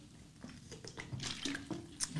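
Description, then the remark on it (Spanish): Someone sips water: soft wet slurps, small mouth clicks and a quiet swallow spread over a couple of seconds, with no talking. “poquito de agua, perdón.”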